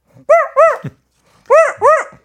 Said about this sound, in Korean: 아무튼 뭐 강아지도 듣고 있다고 하니까 우리가 네. 강아지 소리를 한번 얘기해 주시죠.